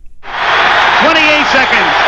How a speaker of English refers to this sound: the crowd going insane.